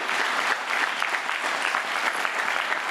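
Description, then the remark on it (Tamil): A church audience claps their hands together in steady, dense applause to give glory to the Lord during a sermon, lasting a few seconds, many hands at once with no voices rising above it. “கைதட்டி ஆண்டருக்கு மகிமையை கொடு நல்ல நல்ல கைத்தட்டு ஆமேன்”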